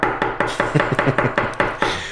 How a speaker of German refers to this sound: Heißt hier so asozial auf den Tisch klopfen.